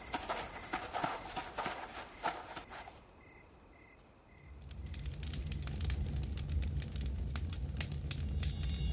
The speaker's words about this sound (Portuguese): Após Clank acender uma fogueira, Sandoval agora sente o calor né, na sua pele